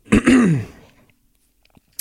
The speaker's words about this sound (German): Kurz räuspern, also ich bin meine Erkältung auch noch nicht ganz los.